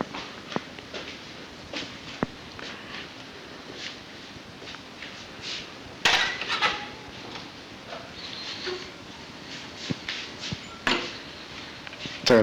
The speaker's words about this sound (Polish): teraz zamykam drzwi. Jestem w łazience